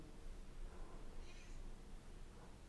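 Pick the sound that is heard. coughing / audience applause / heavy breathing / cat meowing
cat meowing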